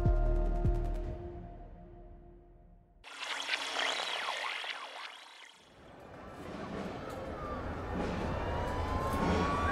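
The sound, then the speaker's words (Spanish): Emergency sirens of 30 fire trucks wail at once in the streets of Oviedo during a funeral procession on the morning of 9 April 2016. Their rising and falling tones overlap into a loud, dense chorus over street noise after a brief, quieter tonal opening. “Son las sirenas de emergencia de 30 camiones en las calles de Oviedo.”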